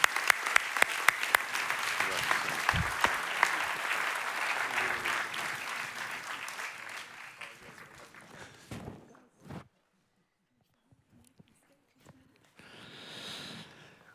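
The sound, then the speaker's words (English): An audience at a prayer service breaks into loud, dense applause for the pastors and their hard work, with sharp individual claps at first, then the clapping thins out and fades over several seconds, followed by quiet and a brief burst of noise. “King of Kings, can we just clap for them, all the hard work that they're doing?”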